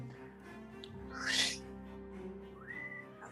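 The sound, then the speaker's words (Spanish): A breathy rush of air is followed by a short, soft whistled note that slides upward, a restrained vocal imitation of a loud, shrill whistle, quiet with no talking. “Bueno, no puedo chiflar así porque voy a reventar el audio, pero un silbido fuerte y estridente.”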